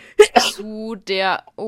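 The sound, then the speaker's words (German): A sudden sneeze bursts out in two quick explosive puffs, loud and breathy, and then a person starts speaking right after it. “Gesundheit.”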